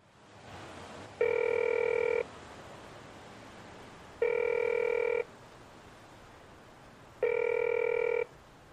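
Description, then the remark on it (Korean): A telephone rings three times with no answer, each ring a steady electronic tone lasting about a second, spaced evenly with quiet gaps in between. No one speaks. “안받네”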